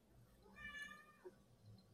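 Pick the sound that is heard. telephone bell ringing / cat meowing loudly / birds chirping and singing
cat meowing loudly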